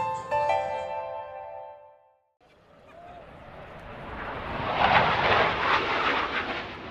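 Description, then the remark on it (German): A brief tonal jingle gives way to a Eurofighter military jet flying low over the Airbus factory grounds in Manching, above about 3000 employees, its roar swelling to a loud, rushing peak and staying strong as it passes overhead. “Es wird laut in Manching und das, bevor der erste Redner auf dem Werksgelände von Airbus überhaupt ans Mikrofon tritt ein Eurofighter donnert im Tiefflug über die rund 3000 Mitarbeiterinnen und Mitarbeiter”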